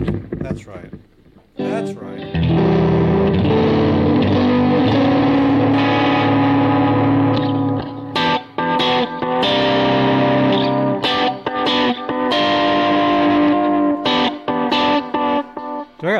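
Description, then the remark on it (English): Electric guitar in drop D tuning run through two compressors and a delay, playing thick, sustained distorted chords that ring out loudly after a quiet start, with a few brief choppy breaks between phrases. “two compressors going here? I do. I can hear them fighting each other. And then you got that crazy delay.”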